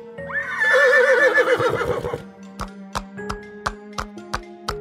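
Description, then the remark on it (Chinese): A tall, sturdy white horse harnessed to a carriage gives a loud, wavering whinny for about two seconds, then a steady clip-clop of hooves follows in an even rhythm of sharp, regular knocks over a low hum. “在那匹高大健壮的白马后面， 套上车厢，在马背上装上小小的座椅，就变成一辆好棒的马车喽！”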